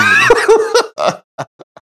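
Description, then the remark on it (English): A person coughs in a quick, throaty burst, followed by a few fainter, shorter coughs or breathy catches that trail off, with no speech. “No, I was probably coughing.”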